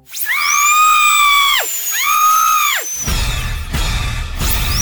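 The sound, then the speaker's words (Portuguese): A high, whining dentist's drill revs in two sustained bursts that rise and dip in pitch, followed by a noisier grinding stretch with the whine fading in and out. Loud, no talking. “Arranca o dente dela sem anestesia, vai.”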